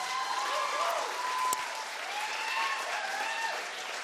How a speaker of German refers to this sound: und ähm, hey, erstmal, ich denke, hey, es, es wäre mal so nice, wenn wir einen dicken Applaus geben den Leuten, die das hier alles vorbereitet haben. Können wir das mal machen?